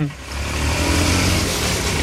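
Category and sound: vehicle, car engine revving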